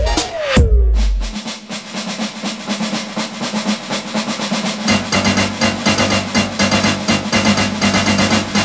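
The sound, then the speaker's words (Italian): Instrumental opening of the Italian theme song of the anime Lady Oscar: a quick sweeping swoosh, then loud, full-band music with steady driving drums and a deep bass line, no vocals yet. “dedicata a un anime bellissimo, cantato da un cantante bravissimo. E la sigla è altrettanto bella.”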